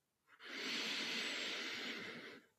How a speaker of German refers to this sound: Und wir nehmen jetzt drei gemeinsame Atemzüge und achten darauf, dass das Ausatmen ein kleines bisschen länger ist als das Einatmen. Und vor dem ersten Atemzug atmen wir einmal vollständig aus und dann gemeinsam durch die Nase ein